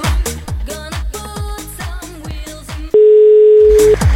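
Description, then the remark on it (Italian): A telephone ringback tone on an outgoing call: after a few seconds of rhythmic, beat-driven music, a single loud, steady tone sounds for about a second and then stops. No one speaks. “Bellissimo squillo. E non risponde questo.”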